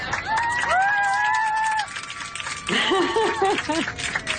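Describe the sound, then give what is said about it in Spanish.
Steady applause from a crowd of airplane passengers, with high excited screams and shouts rising over the clapping, growing livelier toward the end. “Y aplausos.”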